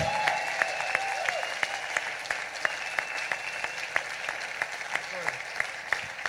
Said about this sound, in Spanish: Quisiera tener a alguien más que pueda aplaudir al Señor.